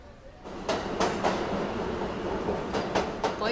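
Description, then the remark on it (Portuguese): A metro train heading to São Judas station, near Congonhas airport, on a cold, overcast day rumbles along steadily, its wheels clacking over rail joints in irregular bursts above a continuous low roar, with no one speaking. “Você para para fazer um lanche e depois se dirige ao metrô”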